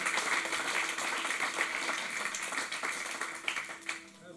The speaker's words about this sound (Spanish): Aleluya, si le va a aplaudir, apláudele fuerte. Apláudele fuerte. Aleluya.